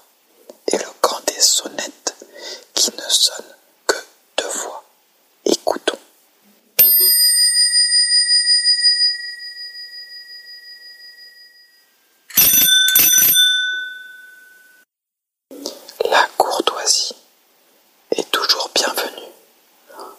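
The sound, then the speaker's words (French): A bicycle bell gives a single bright ding that rings out and slowly fades, then a second lone ding follows a few seconds later, with quiet whispering before, between and after. “sonnettes qui ne sonnent qu'une fois.”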